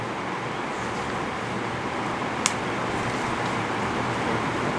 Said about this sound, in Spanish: La lluvia, no, no. Ah. Que no sé si se escucha tanto. Sí, no sé, Diablo. Anda, se escucha un montón. Ah, bueno. So sorry guys, es que el techo del cuarto, o sea, del apartamento es como que zinc. So suena duro.